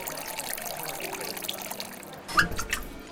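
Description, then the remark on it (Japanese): At a Kobe water bar that serves only tap water, the bar master pours tap water into a glass. It streams steadily with a continuous trickling, splashing hiss, ending in a brief louder gurgle and a light clink near the end. “水曜の夕暮れ時にオープンする水道水だけを提供する水飲みバーマスターが手慣れた手つきでグラスに水道水を注ぎ”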